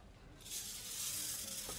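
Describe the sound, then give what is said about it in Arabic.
A steady, dry rustling rattle of coffee beans tumbling in a hand-turned roasting cylinder mounted over a lit kerosene stove rises after a brief quiet moment and continues evenly, with no voices. “مما بيعطي صوت خشخشة وبتبلش الروايح تعبي هالمكان وفترة مو كتير طويلة بتغير صوت المحمصة هون ومع الوقت صرت أعرف إنه هالصوت بيعني إنه العملية شارفت على الانتهاء وبالتالي القهوة خلصت تحميص”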